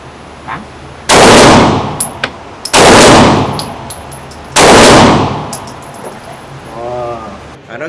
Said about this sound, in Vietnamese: cảm giác mà sau khi mình dùng cái súng lục á súng lục á thì cái cảm giác nó giống như là là là, là khi mà các bạn mới bị tông xe giật bắn vậy đó giật bắn vậy đó